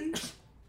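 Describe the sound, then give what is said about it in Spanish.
A single sharp sneeze, fairly loud, bursting out in under a second and then fading to quiet background noise. “Salud.”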